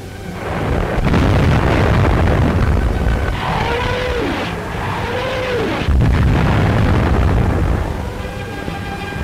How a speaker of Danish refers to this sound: V1 und die Feuergeschosse der Nebelwerfer bringen plötzlich Vernichtung in und hinter die feindlichen Linien. Hunderte von Batterien aller Kaliber tragen den Tod in den Feind.